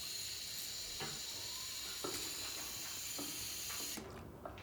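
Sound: water running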